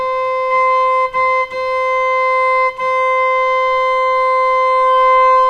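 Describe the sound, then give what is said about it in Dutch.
Two organ pipes being tuned sound together in a steady, loud, reedy tone, the second pipe being adjusted to the first; their combined pitch holds while the volume briefly dips and wavers a few times as they beat against each other. “Ja, dus die, ehm, die eerste pijp is, is laten we zeggen, het uitgangspunt. En die tweede, die, die pas je daarop aan. Als het niet meer zweeft, want je hoort in het begin wow, wow, wow, wow, wow.”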